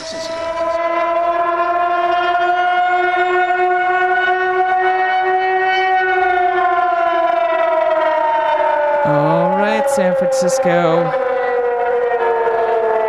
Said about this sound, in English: That siren means only one thing in this town.